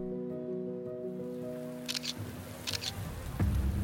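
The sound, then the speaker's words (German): Two quick digital camera shutter clicks, each a crisp double snap, fire about a second apart over a steady low electrical hum and faint background noise, as a digital camera is aimed at the line of people waiting to enter the Superdome. “Marty Bamonday hält seine Digitalkamera auf die Schlange der Menschen, die auf den Einlass in den Superdome warten”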